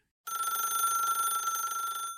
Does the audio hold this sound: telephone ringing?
yes